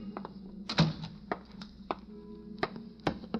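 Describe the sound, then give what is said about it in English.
A door opening at police headquarters at noon, with a few sharp clicks and knocks of the latch and handle, over a steady low hum. “Noon at police headquarters, the opening door.”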